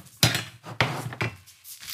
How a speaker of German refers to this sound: Ich pack die Pfanne weg.